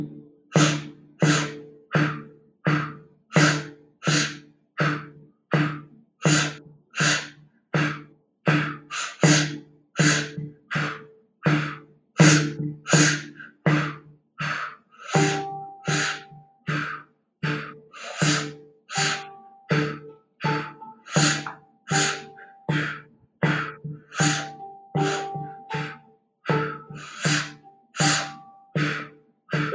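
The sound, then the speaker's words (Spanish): Rapid, rhythmic breathing exercise: short sipping inhales through pursed lips, as if sipping through a straw, alternating with two puffed exhales through the mouth, repeating steadily for about half a minute, with a soft tonal background entering midway. “como si estuvieras sorbiendo de un popote, y dos exhalaciones, también a través de la boca.”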